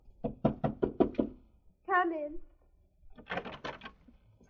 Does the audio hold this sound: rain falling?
no